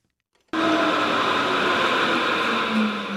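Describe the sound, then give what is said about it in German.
An S-Bahn train at the Sternschanze S-Bahn platform in northwestern Hamburg on a public holiday: a loud, steady mechanical roar with a faint electric whine cuts in abruptly after a brief quiet moment and holds, with no voices. “Auf dem S-Bahnsteig Sternschanze im Nordwesten der Stadt ist heute wenig los.”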